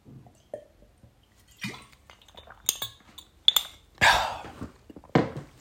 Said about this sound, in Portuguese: Entretanto, vou já beber água que estou quase a desmaiar again.